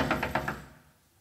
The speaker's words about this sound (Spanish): En esos nanosegundos o en esos milisegundos, entre cuando tocan la ventana y volteas para darte vuelta o evaluar qué es lo que está tocando la ventana, ¿qué sucede?